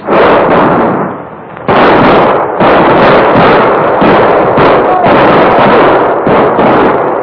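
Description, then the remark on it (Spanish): A sustained volley of rifle gunfire from soldiers firing in all directions over water: loud, rapid, overlapping cracks and bangs pour out without pause for several seconds, with a brief dip in intensity before the barrage surges again. “disparen sobre el agua, disparen en todas direcciones sobre el agua hasta que lo maten. ¡Fuego, soldados!”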